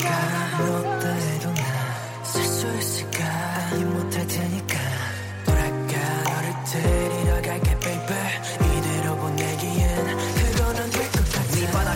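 A K-pop song plays loudly for the whole stretch, with steady sustained synth chords, a thick bass line and punchy kick-drum hits landing more densely toward the end.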